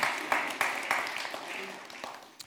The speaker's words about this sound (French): Je propose qu'on applaudisse ça. Ça, c'est une résolution vraiment.